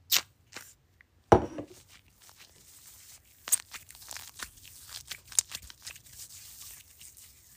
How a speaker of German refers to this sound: Bilou U-Rock duftet nach frischem Waldmeister und saurem Apfel mit einer süßen Vanillenote. You rock my world. Also ich finde, das ist einfach eine 10 von 10. Ich sprühe mal ein bisschen Charme auf meine Hand.